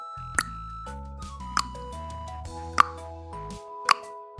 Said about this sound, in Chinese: 舌头也可以发出声音哦，就像这样。